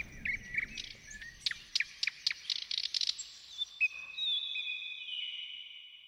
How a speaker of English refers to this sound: I thought I heard some nightingale. yeah, what an illusion. I must have been dreaming dreaming again. A nightingale out here. A jeweled nightingale?